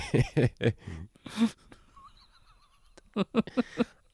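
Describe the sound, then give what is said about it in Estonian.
A voice imitates dramatic dying sounds: strained, whinnying groans in several loud bursts, a brief quieter pause in the middle, then more choppy gasping cries. “aga nüüd sa teed mingi suremise hääli juba lihtsalt.”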